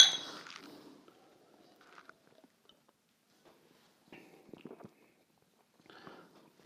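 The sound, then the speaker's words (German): Beer glasses knock together once in a toast, making a bright clink that rings briefly and fades, followed by quiet intermittent handling and sipping sounds with no one talking. “Wo du Biersommelier gesagt hast, sage ich erstmal Prost.”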